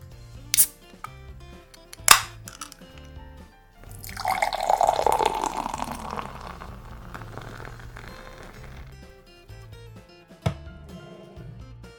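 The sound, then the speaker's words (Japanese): A beer, a hazy light-yellow high-alcohol IPA by Fomalhaut, is opened with a couple of sharp clicks, then poured into a glass in a steady, fizzy gush lasting a few seconds, over a soft background of low tones, ending with another click. “わこれねグラスについだ瞬間からねトロピカルフルーツの香りがね華やかに放たれます色はですね強く濁ったライトイエローですね”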